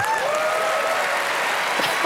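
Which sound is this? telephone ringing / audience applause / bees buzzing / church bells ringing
audience applause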